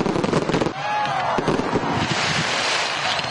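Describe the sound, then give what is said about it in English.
Fireworks going off at a July 4th celebration display in San Jose, California, at night: sharp booms and crackling bursts, with whistling rising trails, overlapping and loud throughout, against a steady roar of crowd noise. “They got a jump start on July 4th celebrations with fireworks displays in places like San Jose, California last night.”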